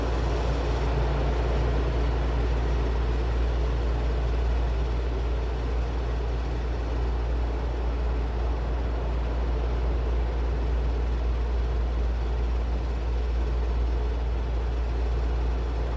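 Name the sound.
steady white noise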